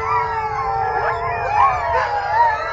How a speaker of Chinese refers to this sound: 冷风吹来，松涛声夹着狼嚎声，给人以恐怖的感觉。